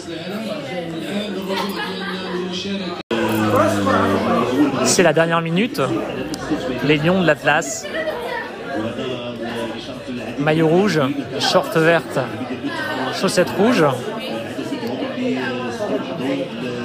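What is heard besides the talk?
crowd chatter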